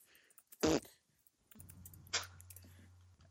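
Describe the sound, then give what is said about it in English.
A short breathy burst, then a longer low, buzzing raspberry lasting over a second: a fart noise made with the mouth, with no talking over it. “did you do a fart noise? I did do a fart I, noise.”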